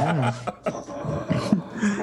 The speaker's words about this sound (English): oh, I think I hear the citizens groups uh, behind you. yeah, it's a dog. Hey, calm down man.